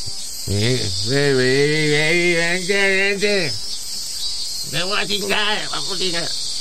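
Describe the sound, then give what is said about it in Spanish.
A steady, high-pitched cicada drone, the song a male cicada makes to call a female to mate, hisses without a break, while a voice sings two long, wavering phrases over it with a short pause between them. “This is the cicada song.”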